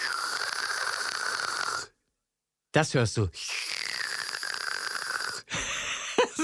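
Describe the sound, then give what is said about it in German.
A voice imitates an e-cigarette being drawn on: two long, airy wheezing inhales with a faint whistling tone, separated by a pause and a brief spoken phrase. “hat zwischendurch immer eine E-Zigarette gezogen.”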